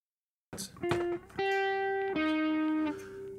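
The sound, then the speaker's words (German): Sustained, lightly distorted electric guitar notes, plugged in by jack cable, ring out alone, a few held tones with rich harmonics changing pitch in a slow sequence, moderately loud. “Das klingt doch schön. So leicht angezerrt, bisschen weniger vielleicht.”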